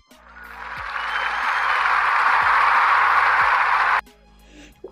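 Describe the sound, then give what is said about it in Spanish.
A dense wash of clapping swells over about four seconds, growing loud and steady like a group applauding to welcome a colleague, then cuts off abruptly, leaving near silence. “Por favor, otro fuerte aplauso.”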